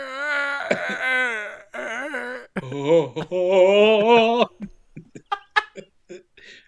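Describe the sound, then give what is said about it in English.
A human voice imitates a bird's cooing song: long, wavering warbled tones in a few phrases, trailing off into short, breathy chirps and squeaks, fairly loud. “so the song, the cooing song is more like.”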